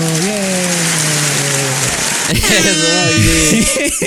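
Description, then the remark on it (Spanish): Steady, dense applause crackles loudly throughout, with voices whooping and cheering over it, holding a long shout at first and then breaking into shorter excited yells. “¡Aplausos!”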